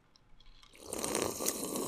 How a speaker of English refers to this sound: Let me take a sip.